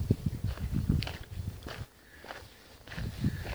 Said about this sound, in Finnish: Nyt kuulette varmaan jo tutun äänen, kun kenkäni lampsustavat tässä pienen hiekkakerroksen päällä.